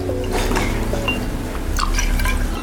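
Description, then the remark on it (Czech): A shot of vodka pours into a glass for a Bloody Mary cocktail in a steady stream for a few seconds, with a faint trickling, dripping quality and a low background hum. No one speaks. “Pinch of salt and pepper, then a few dash of Tabasco, a splash of Worcester sauce, a nice shot of vodka.”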